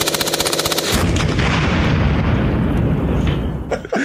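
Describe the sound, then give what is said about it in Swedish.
Rapid machine gun fire rattles in a fast, steady burst of sharp, loud reports, opening with evenly spaced shots before blurring into a dense, roaring barrage that cuts off abruptly near the end. “Kan vi klippa riktigt. in kulsprutor och grejer?”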